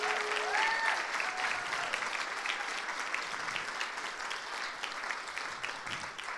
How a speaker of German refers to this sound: Danke, dass ihr so ehrlich und offen von eurem Herzen geteilt habt. Gebt den drei doch nochmal einen riesigen Applaus dafür.